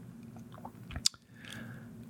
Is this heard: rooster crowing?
no